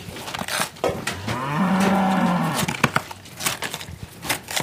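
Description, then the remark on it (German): Cows crunch and chew feed from all corners of a barn, with irregular crackling bites throughout and one long low moo rising through the middle. “Die Geräuschkulisse gibt Wöllert recht. Genüssliches Malmen aus allen Ecken.”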